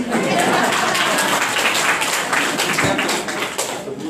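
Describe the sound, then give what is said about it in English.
A crowd claps steadily for several seconds, a dense, fairly loud patter of many hands without pause, at a morning training session. “you guys should clap for me.”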